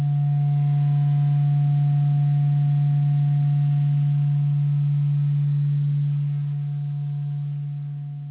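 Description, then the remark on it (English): A steady, loud electronic drone of transmission tones encoding a Fibonacci sequence of numbers at the start of a transmission, a low humming pitch with a fainter higher tone above it, holding almost unchanged for about eight seconds before easing slightly. No voices. “one of those in the beginning of the transmission are a Fibonacci sequence of numbers as tones.”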